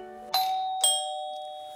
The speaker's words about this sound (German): Wer läutet denn jetzt?